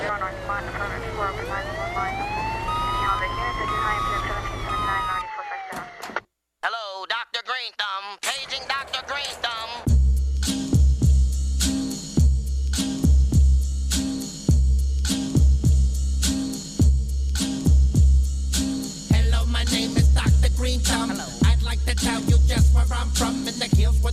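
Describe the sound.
A nineties hip-hop track opens with wailing siren-like sweeps and a brief glitchy break, then a loud, heavy boom-bap drum beat kicks in with a rapping voice over it.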